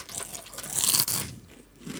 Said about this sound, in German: Und ich habe, während ihr schön ASMR-mäßig ein wenig im Hintergrund das Rauschen und das Knuspern hört, oh nochmal.